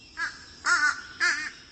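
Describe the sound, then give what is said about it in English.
Three harsh, nasal caws in quick succession from a flock of American crows and fish crows, fairly loud, the second and third longer and more drawn out, with no talking. “But a few crows in this flock sound like they've got stuffy noses.”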